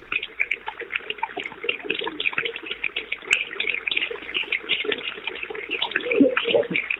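Sustained applause from a crowd, a dense steady patter of many hands clapping for the full seven seconds, swelling slightly louder near the end.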